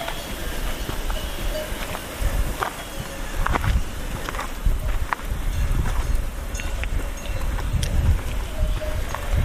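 Cowbells clank irregularly as farmers drive their cows down from a mountain pasture, with shuffling hooves and footsteps over a steady outdoor rumble.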